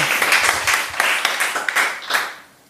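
A crowd applauds with dense, overlapping claps forming a steady bright patter, fairly loud, then tapering off at the end. No one speaks over it.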